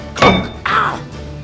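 Two loud, dull thunks of a face being shoved into a door, about half a second apart, the second one longer and more drawn out. No voices accompany them.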